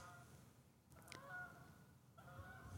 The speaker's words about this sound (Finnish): Siellä joku hanhipariskunta laulaa omaa lauluansa.